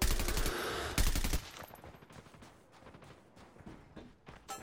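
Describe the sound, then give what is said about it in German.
A loud, rapid burst of automatic gunfire in the first second and a half, then fading into scattered quieter shots and clatter, from a shooter video game's firefight. “Auch wieder Gottes Aim und trifft wieder jeden Schuss.”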